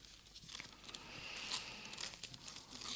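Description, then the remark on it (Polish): Soft rustling and crinkling of paper as an envelope with a few thoughts for today's sermon written on it is handled, a steady stream of small crackles lasting a few seconds with no voices. “Jeśli dzisiaj mam zapisane na parę myśli na, na kopercie.”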